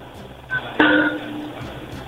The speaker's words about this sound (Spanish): Anda martillando.